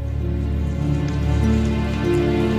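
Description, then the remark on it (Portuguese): Water from a shower runs in a steady, continuous hiss with a low, humming undertone, even in loudness throughout, with no voices present. “Dali a pouco, o barulho do chuveiro cessou.”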